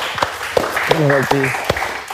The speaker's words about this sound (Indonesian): Oke, saudara-saudara, beri tepuk tangan dulu untuk GJLS.